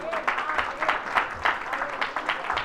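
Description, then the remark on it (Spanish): An audience applauds in praise of the Lord during a church sermon, with steady, dense clapping, many hands striking in overlapping bursts at a moderate level, with faint murmuring voices underneath. “Podemos aplaudir al Señor, alabanza al Señor.”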